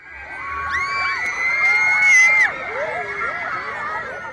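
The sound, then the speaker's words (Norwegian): Hundreds of teenage girls outside a hotel in central Oslo, Norway, shriek and scream continuously, hoping to glimpse a Canadian teen idol: high-pitched overlapping wavering cries that swell to a peak midway before easing slightly and carrying on. “Det var bare en skjeggete fyr i ei hvit T-skjorte som lurte på hva alt bråket utenfor hotellet var.”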